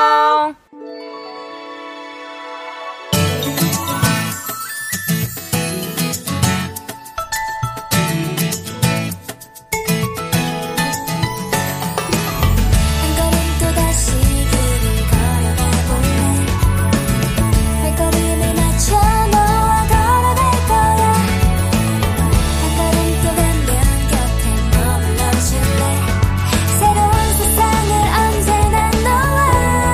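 A K-pop girl group song plays loudly: a short bright intro with a brief pause, then a full, punchy pop arrangement with steady beat and sung melody filling the rest.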